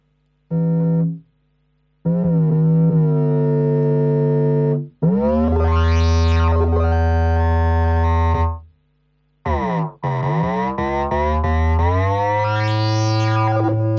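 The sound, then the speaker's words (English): Deep synthesized bass tones from a synthesizer's bass engine, with pulse width modulation, played in several loud phrases with short gaps, the sound gritty and distorted, with sweeping filter rises and falls and gliding pitch. No one speaks. “That's a particular bass. That's the bass one, is it? The bass engine.”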